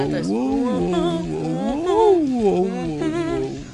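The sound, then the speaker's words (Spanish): A single voice, fairly loud, sings a continuous wavering 'ah' that swoops up and down in pitch, imitating a seal's barking call. “No, uh, canta ah, como una foquita, ¿no?”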